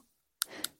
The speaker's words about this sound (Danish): Det her er lyden af rav.